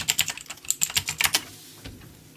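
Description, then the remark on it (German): Rapid, clicky keystrokes on a computer keyboard as someone types into a document, a quick burst of about a dozen taps, then one last isolated key press after a short pause. Fairly quiet, no voices. “Mm, ich schreibe das einfach mal in ein Sendungsdokument rein.”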